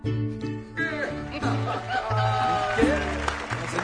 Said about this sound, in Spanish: te aplaudimos, te aplaudimos. Muy bien, muy bien, muy bonito.